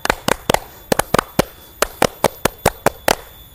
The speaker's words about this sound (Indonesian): Oke, okay. mungkin terakhir kita tepuk pramuka dulu kali ya.